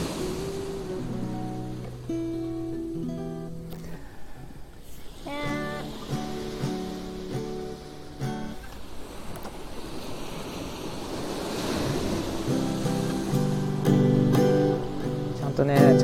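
Ocean waves wash in and break on the shore at the seaside in Hayama at dusk, in broad rising and falling swells, mixed with a steady strummed guitar melody played live over them at a moderate level.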